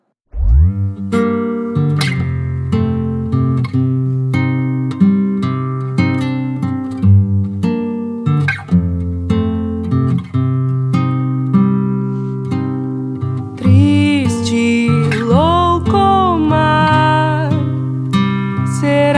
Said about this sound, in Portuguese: E, gente, para a gente começar sempre embaladas com aquele clima, foi unânime entre as quatro, a gente escolheu essa música aqui. Vamos lá.